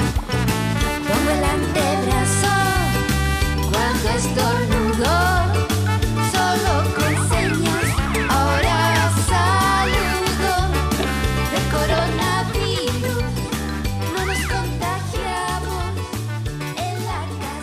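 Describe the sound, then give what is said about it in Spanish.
An upbeat Spanish-language children's song about washing hands with soap against the coronavirus, with sung vocal melodies over a steady, bouncing bass beat and full instrumental backing, staying loud and even throughout. “Hay mucho material para niños sobre lavarse las manos, sobre quedarse en casa. Aquí un ejemplo de ello”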